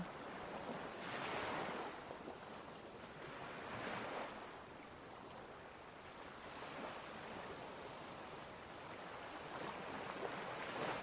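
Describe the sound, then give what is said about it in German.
Ocean waves roll onto a beach in a Caribbean bay in steady, overlapping surges, a broad hiss of surf swelling and receding every few seconds, with a light wind rushing across the microphone. “Du läufst noch etwas am Meeresstrand entlang und genießt diese paradiesische Atmosphäre.”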